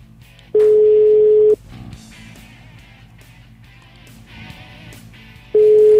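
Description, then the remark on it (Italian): A telephone ringback tone sounds as a steady, clear electronic beep lasting about a second, followed by a long pause with faint background noise, then the beep starts again, unanswered, as a call is placed to someone who is late. “Gli facciamo un colpo di telefono Andiamo per vedere se è per strada.”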